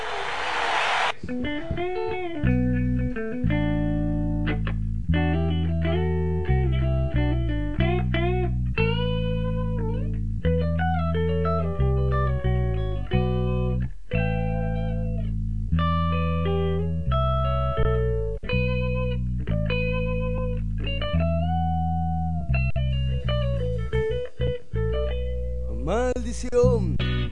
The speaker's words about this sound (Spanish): Entonces, mientras afinamos la guitarra y ya seguimos, dale.